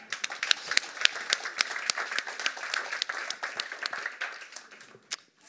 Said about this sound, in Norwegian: Men da gir vi henne en stor applaus.